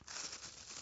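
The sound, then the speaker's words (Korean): Steady rustling and crinkling of stiff folded paper as a bell-shaped origami paper card is opened, lasting under a second with no voices. “종 모양의 소리 들리시나요?”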